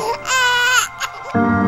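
A newborn baby wails at birth in loud, high-pitched bursts, one long cry followed by a shorter one, with a low rumble of background noise toward the end.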